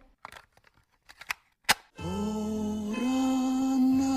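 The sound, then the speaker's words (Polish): A short segment jingle opening a corner of patrons' questions: a handful of quick, sharp snipping clicks, then a loud sustained harmonic chord that rises slightly in pitch and holds steady to the end. “Uwaga, jingle.”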